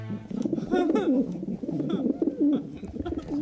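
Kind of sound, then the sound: bird, pigeon cooing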